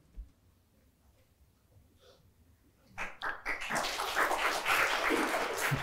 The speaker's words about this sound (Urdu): I am so hurt کہ آپ نے اس بات پہ تالیاں بجائی you think this is some thing کہ اس پہ آپ تالیاں بجائیں گے